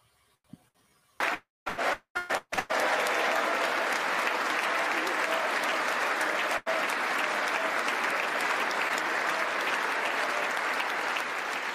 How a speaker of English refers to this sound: You got black people here in Congress clapping hands to this monster.